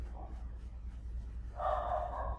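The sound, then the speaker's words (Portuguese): A dog barks once, a drawn-out, muffled bark near the end after a quieter moment, over a low steady background hum. No one speaks. “Meu cachorro latiu e eu esqueci o que eu tava falando.”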